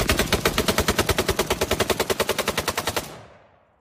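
A rapid burst of automatic gunfire: about two dozen sharp, loud shots in an even, fast rhythm for three seconds, then an abrupt stop with a fading echo. No one speaks.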